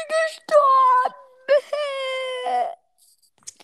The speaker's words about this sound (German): Ey, ich bin gestorben! Ich muss jetzt weinen, weil ich.